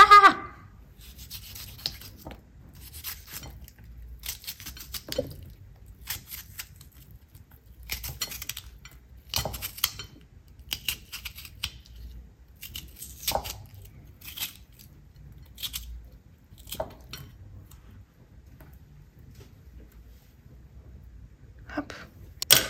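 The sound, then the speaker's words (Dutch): A knife slices through cucumber in a run of crisp, irregular cuts, each a short bright crunch, with small rubbing and scraping sounds between them and no talking. “Ik, heb, ik ga even heel raar snijden, dan kan je meekijken.”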